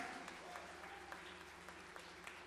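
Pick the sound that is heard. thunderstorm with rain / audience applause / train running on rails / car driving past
audience applause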